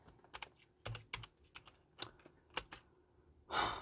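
Fingers tap out a short burst of keyboard typing as the word "blue" is typed into a search, a dozen or so quiet, irregular clicks, finishing with one heavier, louder keystroke. No one speaks.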